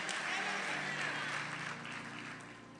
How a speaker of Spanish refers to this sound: Dele un aplauso a Dios ahora sí.